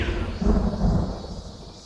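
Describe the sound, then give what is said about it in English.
A low, rolling rumble of thunder from an approaching storm swells and slowly fades, deep and heavy with no voices present. “The approaching storm.”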